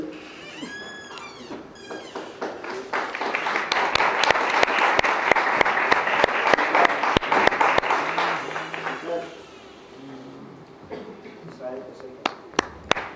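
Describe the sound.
A rock concert audience bursts into applause for the band members that swells into a dense, sustained wash of clapping, then thins out and fades, with a few scattered claps and a voice heard near the end.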